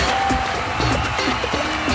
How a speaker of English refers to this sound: I don't know if the mic is picking up, but everyone's applauding. Everyone's yeah. applauding, so I'm glad you're enjoying yourself.